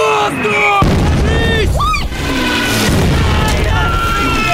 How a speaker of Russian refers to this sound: За спинами старшины и Нина раздается взрыв, они спрыгивают в окоп.